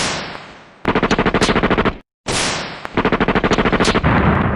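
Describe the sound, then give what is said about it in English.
Loud gunfire sound effects played as a shootout music cue: a sharp blast fading out, then rapid, steady bursts of automatic fire. The whole pattern plays twice with a brief gap between, and no one speaks. “Hey, can you play that very annoying shootout music?”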